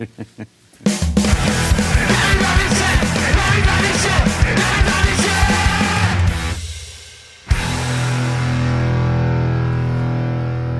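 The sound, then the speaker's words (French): A man yells loudly and excitedly in celebration of a Chiefs win for several seconds, raw, then breaks off briefly before a steadier, sustained sound follows. “Crie pas trop fort,”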